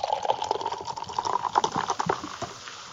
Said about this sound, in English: And you know what? I'm actually going to pour it in the glass.